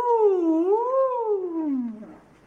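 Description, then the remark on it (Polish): A single human voice imitates a wailing tornado siren, one sustained loud tone that dips, swells up, then slides slowly down before trailing off into a breathy fade. “And, and if you lived in my city, at that moment you would begin to hear loud sirens all over.”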